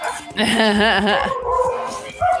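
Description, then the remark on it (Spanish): A dog named Coco gives a drawn-out, wavering vocal bark, lasting over a second and trailing off, followed by a short yip near the end. “Ahora Coco anda muy vocal, ¿eh,”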